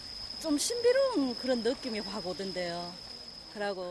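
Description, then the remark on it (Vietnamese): A steady, high-pitched insect drone, like crickets or cicadas, hums continuously in the Gyerim forest at night while a person talks over it in the foreground. “Lần theo ánh trăng đi sâu vào rừng Kerim, âm thanh duy nhất có thể nghe thấy là tiếng của các loại côn trùng và tiếng bước chân.”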